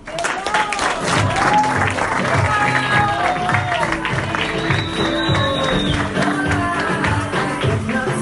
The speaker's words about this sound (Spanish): Un líder para nosotros, que como les decía, tiene así su corazón de oro eh, y quiero que lo recibamos con un caloroso aplauso a nuestro premier líder